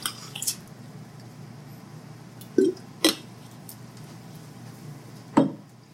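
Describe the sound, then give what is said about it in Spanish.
Someone takes a quiet sip of water: a few brief wet slurps and soft glass clicks, spaced a couple of seconds apart over a faint hush, with no talking. “con permiso. Un poquito de agua.”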